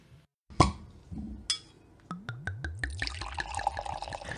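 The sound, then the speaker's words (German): A sharp pop as a bottle of sparkling wine is opened, followed by a run of quick glugging pours into a glass and a rising, hissing fizz of bubbles, fairly loud. “Wir trinken erstmal und machen die Flasche auf.”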